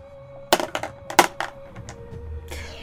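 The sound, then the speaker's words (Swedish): Two dice clatter on a hard surface as they are rolled: a quick run of sharp, irregular clicks and knocks that tumble for about a second and a half, then settle into quiet. “Och här får du använda två tärningar för du har en specialisering som heter drömartefakter.”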